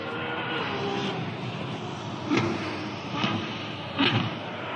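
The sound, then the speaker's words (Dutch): A Ferrari V12 engine, the naturally aspirated 6.5-litre, 800 hp successor to the F12 Berlinetta, roars steadily on Ferrari's Fiorano circuit, a dense, rushing drone broken by three short, sharper bursts as the revs spike. No voices are heard. “Dit is eh, opgenomen op het circuit van Ferrari. Ja, Fiorano.”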